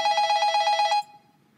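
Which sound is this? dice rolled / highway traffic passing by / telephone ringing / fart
telephone ringing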